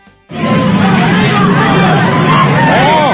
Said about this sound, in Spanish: gritos y sombrerazos. Ahí están agarrando, mira, golpes, De las greñas, dos mujeres. dos mujeres ahí. Una mujer contra un hombre.